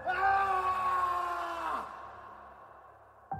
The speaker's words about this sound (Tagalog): Tapos bigla na lang ho akong nakarinig ng sigaw, isang malakas na sigaw ng boses lalaki.